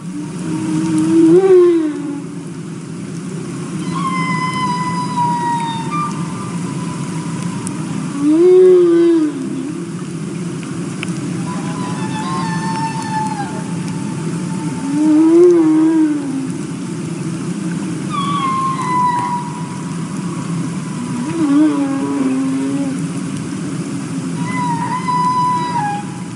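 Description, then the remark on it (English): Humpback whale song recorded underwater in Glacier Bay National Park: repeated low swooping moans alternate with higher wavering, whistle-like calls, sounding in a slow cycle every few seconds over a steady deep rumble of ocean noise. No one speaks. “we actually have a recording uh, provided by the National Park Service, uh, humpbacks recorded in the Glacier Bay National Park.”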